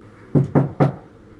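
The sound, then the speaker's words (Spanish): Three quick, firm knocks on the main front door of a house in Mexico City at night, evenly spaced in rapid succession, clear, followed by silence. “Los primeros sucesos comenzaron una noche, cuando tocaron a la puerta principal. Luego siguieron por una de las ventanas. Tres golpes rápidos y luego silencio.”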